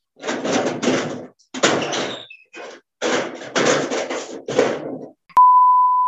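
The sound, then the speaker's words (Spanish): A door is handled and closed: several scraping, rattling bursts, then a sharp knock as it shuts, followed at once by a steady, loud electronic beep. No one speaks. “Espérenme en un segundo porque tengo que cerrar la puerta.”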